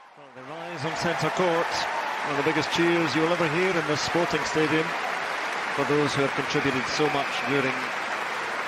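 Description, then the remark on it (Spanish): A standing ovation from the scientific community for a University of Oxford scientist who co-designed the Oxford AstraZeneca vaccine: loud, sustained applause from a large crowd fills the whole stretch, with voices calling and cheering prominently over the dense clapping. “que codiseñó la vacuna de Oxford AstraZeneca con una gran ovación de pie dentro del gremio una gran ovación de pie dentro del gremio científico es conocida por ser una de las líderes mundiales en vacunología.”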